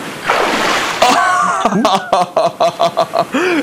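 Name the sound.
splashing in water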